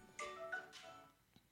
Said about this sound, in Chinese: 我的手机响了